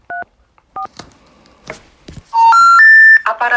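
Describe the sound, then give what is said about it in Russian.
Telephone dialing tones as a call is placed to Alexander Samofal's phone: two short dual-pitch keypad beeps and a few faint clicks, then a loud three-note rising electronic tone sequence, like a network's error signal, with no one talking; the phone is switched off or out of network coverage. “Ну, Владимир, ты готов звонить снова?”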